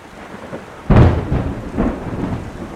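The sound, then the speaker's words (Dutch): A thunderstorm: a sudden loud crack of thunder breaks out and rolls on in heavy rumbling waves over a steady hiss of heavy rain, with no voices. “Donder, bliksem en een harde stortbij van regen.”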